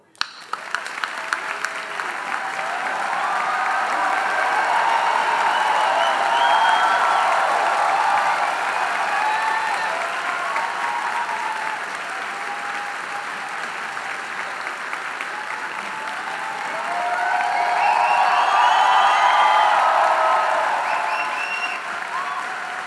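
A large live audience applauds loudly and steadily for over twenty seconds, with whoops and cheers rising in waves, swelling again near the end before easing slightly.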